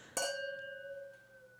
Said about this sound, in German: Diesmal ist es ein heißer Glühwein. Genau, aber aus dem Weinglas. Genau, also schauen wir mal, wie lange das funktioniert mit dem Anstoßen, bevor es zerbricht.